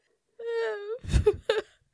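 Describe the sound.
A voice imitates a shrill, strange snoring-like sound once heard at night by a bed: a thin, sustained whine, then a rough, noisy snort-like burst and a short nasal tail, all within two seconds.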